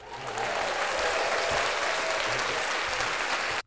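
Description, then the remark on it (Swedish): A burst of dense, steady recorded applause sound effect from a crowd, loud and sustained for a few seconds before cutting off abruptly, with no voices standing out. “Eh, då tycker jag att vi ska, vi avslutar med en applåd, eller hur?”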